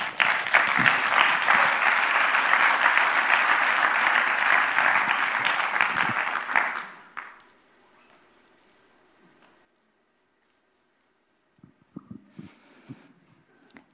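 Warm applause from an audience, a dense, steady wash of many hands clapping for about seven seconds before quickly dying away into near silence, with a few faint scattered sounds at the end.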